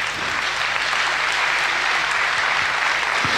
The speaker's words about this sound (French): Voilà, merci Seigneur, et béni sois-tu, et les applaudissements euh, que, que, nous faisons, ils sont vraiment pour Dieu, qui, qui guide notre histoire.